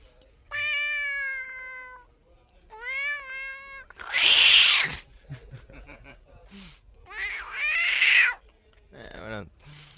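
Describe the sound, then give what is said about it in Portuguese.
A voice imitates a cat, giving two long, drawn-out meows followed by a couple of loud, raspy hiss-like bursts with short pauses between them. “E também, pronto, também é o gato, né?”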